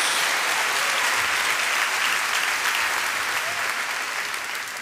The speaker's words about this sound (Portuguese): Agora pode dar uma salva de palmas a Jesus.